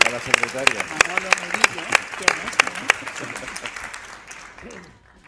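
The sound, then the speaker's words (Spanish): An audience applauds audience members who volunteer to share their experience as entrepreneurs, a dense patter of many hands clapping that stays loud for several seconds before thinning out and fading near the end. A voice speaks briefly beneath the clapping. “Venga, eh, ¿nos cuentas tu experiencia un aplauso, por favor, a los que se animan.”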